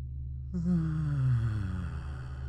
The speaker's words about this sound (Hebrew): ניקח עוד נשימה עמוקה. נחזיק את האוויר. ונוציא צליל של פיהוק.